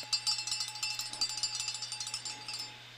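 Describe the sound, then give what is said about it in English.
A cowbell clanks in a quick, steady run of bright metallic hits, about a dozen in a few seconds, fairly quiet and over a low constant hum, with no one talking. “We need a cowbell.”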